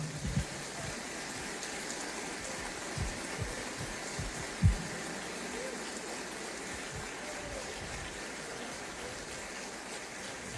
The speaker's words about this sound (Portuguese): Aplauda o Senhor por um minuto.